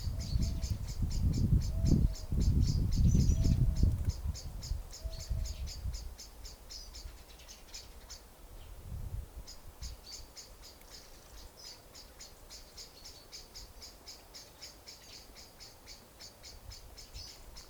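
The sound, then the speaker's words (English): Steady, rapid high-pitched chirping of birds continues throughout, pausing briefly midway, with a low rumbling background in the first few seconds. Nobody speaks. “You try that with me, just to be with this sound of the birds on this recording.”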